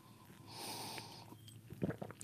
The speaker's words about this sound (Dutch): Ik ga er eens eentje laten horen. Ik heb hier een kop hete koffie voor mij staan. Ik neem daar nu een slok van.